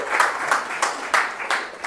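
A crowd claps together in a dense, steady wash of applause, many hands slapping at once with a few sharper bursts standing out, fairly close and moderately loud.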